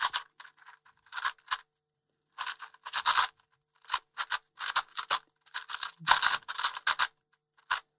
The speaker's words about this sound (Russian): собирает кубик. Да, да, да. ОЛЛ, ПЛЛ, доворот,